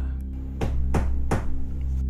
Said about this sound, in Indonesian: pintu kamar ada yang ngetok.